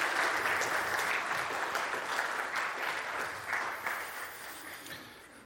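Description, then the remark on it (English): A large group stands and applauds as a man walks out: a dense, steady wash of clapping that stays loud throughout and tapers slightly toward the end, with no voices standing out. “Yeah, everybody stand up and applaud as he walks out.”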